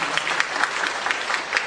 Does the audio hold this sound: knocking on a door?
no